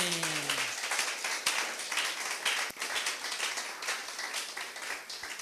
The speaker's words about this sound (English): You clap for the Holy Ghost. Amen.